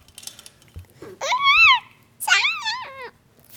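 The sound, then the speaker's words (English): A young child makes two loud, high-pitched monkey-like calls, each a rising-and-falling wavering squeal, after a few faint babbling sounds. “Okay, that was a monkey sign off.”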